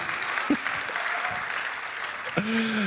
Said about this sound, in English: All right, and here's your certificate of license. Give them a hand, everybody. Have a seat.